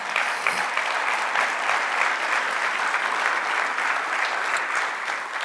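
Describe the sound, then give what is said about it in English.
A steady round of applause from a church audience for the youth department during a morning service, dense clapping holding at an even, fairly loud level for several seconds with no talking over it. “Would you give our youth department a round of applause this morning?”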